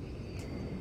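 airplane passing overhead

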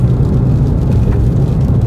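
car driving

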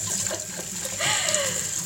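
washing dishes

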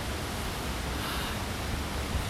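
rushing river water

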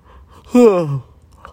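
yawn

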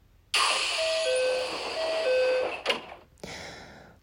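train sliding doors closing

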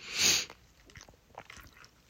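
chewing and biting food

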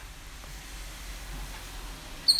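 rain falling outside

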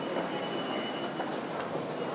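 train passing by

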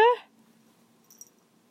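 cat meowing

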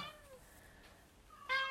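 pet cat meowing

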